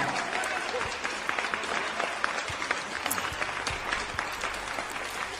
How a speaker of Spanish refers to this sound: Vamos a darnos un aplauso, amigos. Lo merecemos.